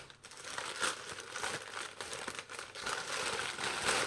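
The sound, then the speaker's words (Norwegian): Continuous crinkling and crumpling of paper as a package wrapped in a Tromsø local newspaper is torn open, with irregular rustles and brief tearing sounds filling the whole stretch. “Jeg vet at dette kanskje ikke er gøy å høre på, men eh, den er enda mer innpakka òg, vet du.”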